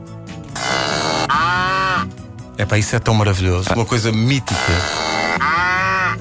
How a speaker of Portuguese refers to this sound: E reparem que eu estou a usar uma aplicação do iPhone que faz exatamente isto. Sim, meus amigos, eu fui o feliz possuidor de uma caixa com som de vaca.